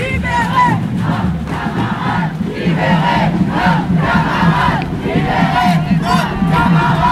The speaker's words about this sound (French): il y a quand même eu un gros moment de chahutage pour tenter d'empêcher l'une de ces arrestations